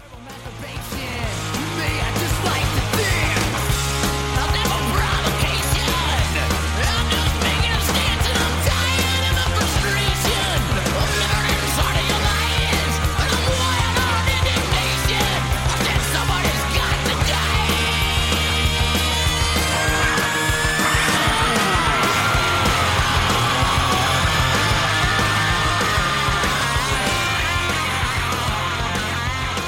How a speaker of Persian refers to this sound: توی این آهنگ واسه … شاخشونه کشیده یه تیکه دیگه شو بشنوین